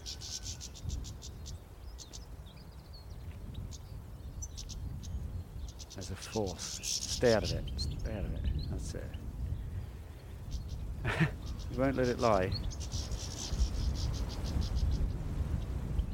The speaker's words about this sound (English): That's the sound of angry goldfinches.